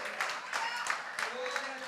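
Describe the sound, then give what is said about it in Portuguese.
A crowd applauds steadily, dense overlapping claps at moderate volume, with a few voices mixed faintly into the noise; people clapping above their heads, applauding Him as a king. “A um rei só aplaudimos acima da cabeça.”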